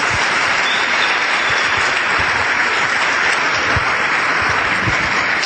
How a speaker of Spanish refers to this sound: Dale un aplauso porque eso es impresionante.